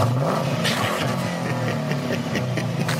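A loud, continuous tuned GM LS V8 engine revs with a deep rumble, its pitch sweeping up and down through several throttle blips over a few seconds, with no talking.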